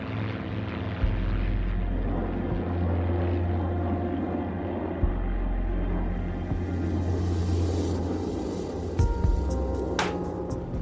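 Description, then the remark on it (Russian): A steady, loud propeller-engine drone of an old twin-engine Douglas transport plane, built in the USSR under licence as the Li-2, with deep low-frequency throb and tonal hum, continuous throughout, with a brief louder surge near the end; no talking. “Удивительно надежный самолет, пригодный и для Арктики, и для Африки.”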